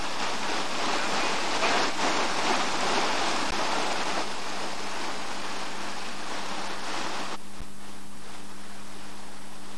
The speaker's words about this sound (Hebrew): ים.